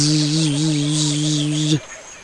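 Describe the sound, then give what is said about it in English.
A steady buzzing drone of a bee with a slight wavering pitch holds for nearly two seconds, then cuts off abruptly into near silence. “There is a bee on your nose.”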